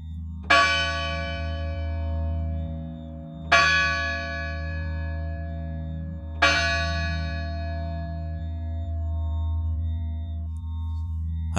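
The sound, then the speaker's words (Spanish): Three slow, resonant church bell strikes at ten o'clock, tolling to announce a death in the village, spaced about three seconds apart, each ringing out and decaying over a steady low hum, giving a solemn, mournful toll. “Así transcurrió la mañana hasta que, en punto de las 10, las campanas de la iglesia redoblaban con un tono triste.”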